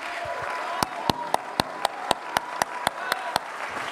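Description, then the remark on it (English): A church audience claps in steady unison during a sermon, answering the preacher's call to clap in the devil's face. Sharp crisp beats land about four per second over a dense bed of crowd noise and cheering, growing into a sustained rhythmic clap. “Why don't you clap in the devil's face and serve him notice that you're here and you're here to stay?”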